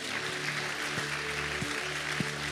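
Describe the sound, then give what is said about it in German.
An audience in a hall applauds in a dense, steady wash of clapping that holds at an even level throughout, with a low sustained tone and a few soft thumps underneath. “Lasst uns hier mal einen riesigen Applaus geben.”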